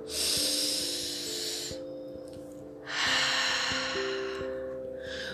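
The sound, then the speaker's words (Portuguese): A slow, deep breath drawn in through the nose and pushed out through the mouth during a guided breathing exercise with eyes closed, two long airy rushes, with soft sustained music droning underneath. “Puxa o ar de forma profunda e solta pela boca.”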